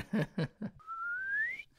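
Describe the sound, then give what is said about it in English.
A few quick laugh-like vocal bursts, then a person whistles one smooth, steadily rising glide imitating a slide whistle, clear, lasting under a second. “That was a good slide whistle.”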